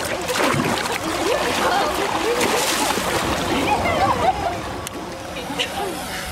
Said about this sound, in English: the pool, launch into the water, and flick your tail into the air as high as you can. It creates a big splash. Water flies everywhere. It takes a lot of energy as well with the heavy tail attached to your body.